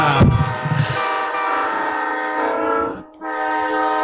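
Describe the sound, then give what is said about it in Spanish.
A passing train sounds a loud, sustained horn blast over low rumbling, the chord dropping out briefly near the end before blaring again. No one speaks. “Está pasando un tren.”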